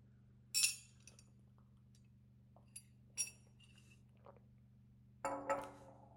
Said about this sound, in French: Je bois un petit petite gorgée de thé